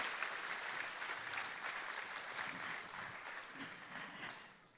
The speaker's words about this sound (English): All of you, would you mind giving them a hand of applause just for see, even saying yes to this illustration?